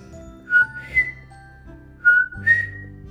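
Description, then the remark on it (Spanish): A person whistles an imitation of the call of Puerto Rico's coquí frog, two short rising two-note chirps repeated twice, clear with no talking. “Por las noches que escuchamos el”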